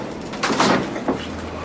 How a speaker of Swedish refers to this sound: Sen börjar han bryta på dörren.